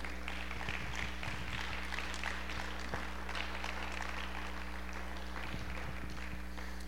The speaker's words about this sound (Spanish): ¿Le podemos dar un aplauso al Señor por eso?